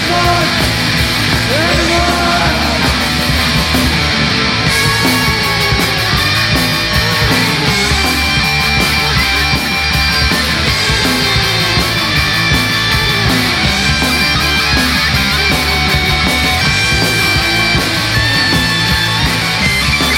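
A loud, distorted rock song plays throughout, with dense driving guitars, steady pounding drums and shouted vocals, close and full-volume without a break.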